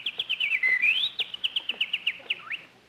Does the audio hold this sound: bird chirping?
yes